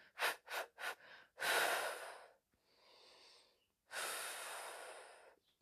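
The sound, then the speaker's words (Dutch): Breathing in a set rhythm: a few quick, sharp sniffing inhales, then long, airy breaths in and out at a slow, deliberate pace, inhaling and then exhaling over three counts, with a softer quiet breath between them. No talking. “Dat ik uh, gewoon inadem en dan drie tellen uit.”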